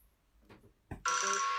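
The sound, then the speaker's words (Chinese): A telephone bell in a TV drama scene bursts into a loud, continuous metallic ring after a soft thump and a few faint rustles, the bright high-pitched trill holding steady to the end with no one speaking. “哦，我想到剧里面有一个，就是小秋她在东京的时候，然后她不是坚持不下去了嘛， 嗯， 也是跟那个春子和夏婆婆对照的，她就打电话给那个。”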